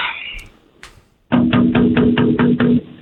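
Hard, rapid knocking on a window pane, roughly seven loud raps in an even rhythm with a ringing hum beneath them, after a quieter stretch of faint bumps; someone bangs on the glass to try to break it and get in.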